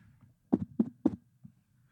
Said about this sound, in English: That doesn't get picked up, by the way. Oh, it doesn't. Oh, no, yeah. Oh, really? Oh, yeah, it's, it's, just you. It's just you tapping a microphone cover.